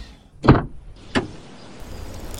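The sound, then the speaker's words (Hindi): A car door unlatches and swings open with a solid clunk as the driver gets out after braking mid-road when a front tyre went flat, on a cold night beside an old British-era cemetery; a moment later a second sharper knock, with a soft outdoor hush underneath and no voices. “अचानक बीच रास्ते में मेरी कार के आगे वाले टायर से अजीब सी आवाज़ आई और कार एकदम से डिसबैलेंस हो गई मैंने जल्दी से ब्रेक लगाई और हिम्मत करके गाड़ी से उतरा”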